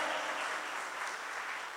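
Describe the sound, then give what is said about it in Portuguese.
A crowd claps steadily, a dense, even wash of many hands that holds at the same level throughout, with no voices over it. “Vamos dar uma salva de palmas, Senhor.”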